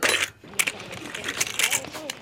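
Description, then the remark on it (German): Coins clink and jingle in a bookshop's cash register drawer as the till is checked, a bright metallic rattle with several sharp chimes scattered over about two seconds, while faint voices murmur underneath. “Ich kontrolliere mal die Kasse.”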